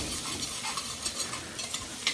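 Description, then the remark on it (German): A spoon scrapes and stirs across the bottom of a pot, loosening the browned fond after meat was browned, while onions sizzle steadily in hot fat and release liquid, with irregular scratchy strokes over a constant crackling hiss and no voices. “So, jetzt werde ich natürlich hier versuchen, möglichst bald den Bratensatz vom Topfboden abzulösen.”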